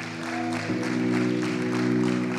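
An audience applauds, many hands clapping in a dense, steady wash throughout, with sustained low musical tones, like held keyboard chords, sounding underneath.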